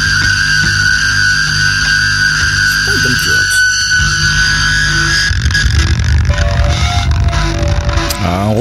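A loud, dense funk rock track by a Dutch band plays throughout, with sustained guitar tones, a busy low end and a vocal mixed into the thick, driving sound.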